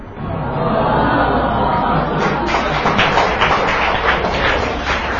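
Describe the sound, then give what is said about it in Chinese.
An audience breaks into sustained applause for the speaker's father and for the poet Du Fu, a dense, steady wash of many hands clapping at once that grows crisper and fuller partway through and stays loud to the end, with a faint crowd murmur underneath. “谢谢你们为我爸爸鼓掌，也为杜甫鼓掌。”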